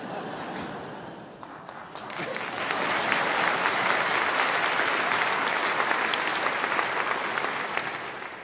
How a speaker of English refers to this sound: So whenever you want to clap, it's not applause for performance. It's a way of saying, we agree with what God is doing. We agree with what is being sung. It's not applause for a performance. Think of it as a Presbyterian amen.